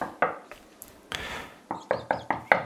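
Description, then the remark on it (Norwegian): Knocking on a door: a few scattered wooden thumps and a short scraping rustle, then a quick, steady run of five firm knocks, each louder than the last. “Jeg knakker på døren, eller jeg banker på døren.”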